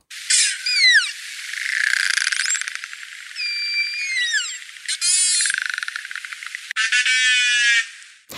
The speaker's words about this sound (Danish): Det sidste, du hørte her, det var et klik, summelyde og kald fra narvaler. En valart, der er øh, kendt for at have en øh, snud stødtand, der øh, stikker lige frem ud fra, øh, ud fra hovedet.